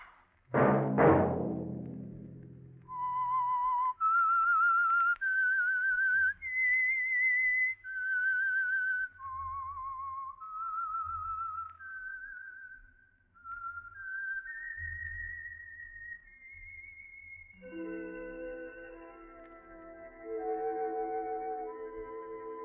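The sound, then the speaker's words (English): The signature whistled theme of the Signal Oil Company's radio program The Whistler: a lone whistler carries a slow, eerie melody of long held notes that climb and dip, loud, after a brief opening crash; near the end, sustained instrumental chords swell in beneath it. “Let that whistle be your signal for the Signal Oil program, The Whistler, which will come to you every Wednesday hereafter, beginning July 2nd, one week from this coming Wednesday.”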